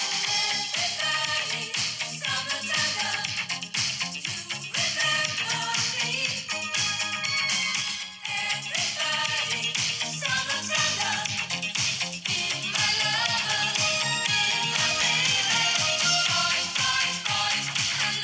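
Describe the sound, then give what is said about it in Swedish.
A pop song from a few years ago plays continuously for the whole stretch, full and upfront, with a steady driving beat and bright layered instrumentation; one brief dip in the middle, and no talking over it. “Så här kunde ju låtar, eh, så här kunde man ju lyssna på låtar för några år sedan.”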